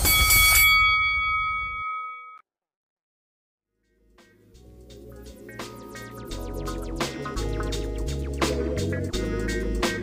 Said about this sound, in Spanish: Para más información, escríbenos en nuestras redes sociales, así mismo Tras Bastidores y que suene la campana.